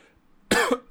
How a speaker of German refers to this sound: da muss ich gleich schon mal husten.